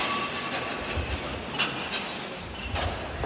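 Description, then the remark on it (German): A relatively large group walks over loose metal plates that lie like fallen leaves across the floor of a Memory Void, making a dense, continuous clinking and clattering, with brighter, sharper clanks popping out every second or so. No voices are heard. “sie liegen halt wie gefallenes Laub an der Erde und füllen den Boden dieses Memory Voids und man darf drüber laufen”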